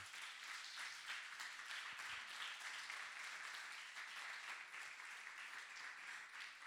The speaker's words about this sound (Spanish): Dale un aplauso a la palabra de Dios, por favor.